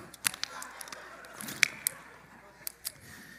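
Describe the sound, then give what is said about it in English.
Someone quietly takes a drink of water: a few small wet clicks and gulps spaced over a few seconds, with no talking. “I'm just going to take a drink of water right now.”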